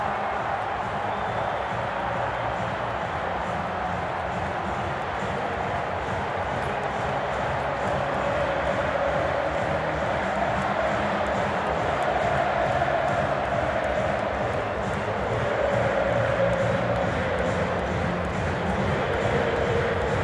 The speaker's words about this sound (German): Das letzte von 89, äh, nee, von 86 Toren von Erling Haaland in 89 BVB-Spielen. Ähm, da haben wir die äh, Minuten des Tores nochmal samt Jubel aufgenommen. Äh, also hört hier mal gerne rein.